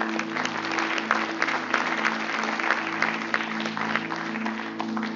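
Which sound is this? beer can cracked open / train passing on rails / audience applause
audience applause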